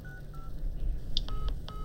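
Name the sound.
phone keypad dialing tones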